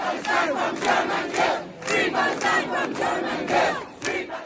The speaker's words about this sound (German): Wenn man sich Videos anguckt, wie das vor dem Auswärtigen Amt, als bei einer Demo hunderte Studierende gerufen haben, Free Palestine from German Guild.